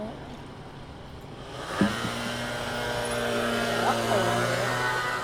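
A Mio motor scooter engine kicks in partway through and hums steadily, its pitch rising briefly in a couple of light revs over a noisy background.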